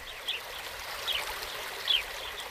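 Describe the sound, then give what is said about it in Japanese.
A steady rush of flowing river water fills the scene at a constant, moderate level, with three brief, faint high chirps surfacing at even intervals above the flow. No one speaks. “オフィリアは狂気の中わらべのように森をさまよい川に落ちた”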